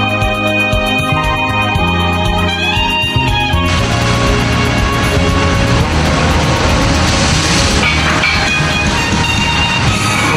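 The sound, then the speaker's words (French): Loud, continuous noise of a storm heard aboard a pitching boat, with a deep rumble and rhythmic clattering and creaking as the vessel groans and rocks. The din swells and thickens partway through and never lets up. “On entend la tempête dans le bateau, vous entendez C'est fou ça ah, ça tangue aujourd'hui.”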